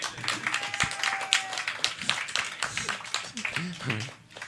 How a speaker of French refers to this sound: On applaudit.